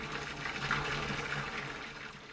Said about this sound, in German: das Wasser stieg schnell und die Wanne war fast voll.